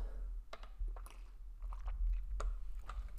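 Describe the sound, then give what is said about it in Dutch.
Someone sips water: a few quiet, wet mouth clicks and small swallowing sounds scattered over a low background hum, with no talking. “Ik neem heel even een slokje water, want ik krijg een beetje een droog mond.”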